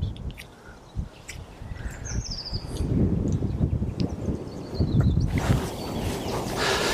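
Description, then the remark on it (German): Strong wind blows outdoors on a golf course, a low rumbling roar that gusts louder partway through, while small birds chirp faintly in the background. No one speaks. “Aber der Wind ist schon ordentlich.”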